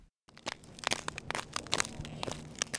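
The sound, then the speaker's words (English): Irregular crunching and scraping of a hydrologist's footsteps shuffling across patches of vivid blue ice at the edge of Mendenhall Glacier near Juneau, with dense gritty crackles and brief louder crunches, no voices present. “is shuffling across patches of vivid blue ice.”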